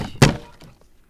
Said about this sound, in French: le plat qui tomba par terre, se brisant en mille morceaux dans un grand fracas.